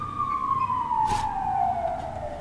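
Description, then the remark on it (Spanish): A police car siren wails steadily, its pitch sliding slowly downward as the car passes by, over traffic rumble with a brief burst of noise midway. “Últimamente pasan un montón de coches de policía por aquí.”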